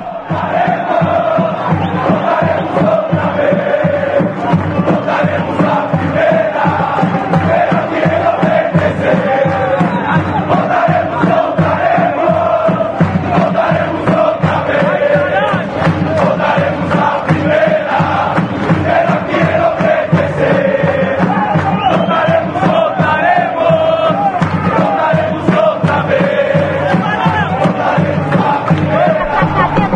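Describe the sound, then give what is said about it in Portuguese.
Leões da Fabulosa, a supporters' group of Associação Portuguesa de Esportes, chants in unison in a stadium, loud and sustained, with a steady rhythmic pulse and a sung melodic line carried by many voices throughout. “Perfeito, vamos ouvir a Leões da Fabulosa e todos os outros ali que frequentam o Carindéia portuguesa combalida, mas forte para sempre.”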